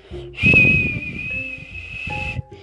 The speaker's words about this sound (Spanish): Horacio escuchó algo así como unos silbidos